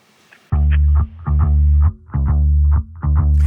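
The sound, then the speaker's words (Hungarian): A song's opening bars play loudly: thick, distorted, chorus-drenched chords pulse in four rhythmic bursts over a heavy low end, with no vocals yet. “Hát most meg is hallgatjuk, akkor következzen a ….”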